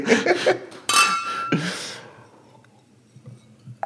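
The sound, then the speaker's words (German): Glasses clink together in a toast, a few bright knocks whose ringing tone lingers briefly, with soft breathy sounds around them and a faint clink near the end. “In dem Sinne Prost. Ja, cheers.”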